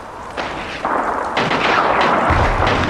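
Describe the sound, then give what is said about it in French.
Dense, continuous artillery fire with rolling explosions around the Mât de la Croix during the battle for Arles, building in loudness over a few seconds into a heavy, rumbling barrage with no voices. “Des explosions aux environs du mât de la croix, me laisse supposer que les Allemands abandonnent la partie et décrochent.”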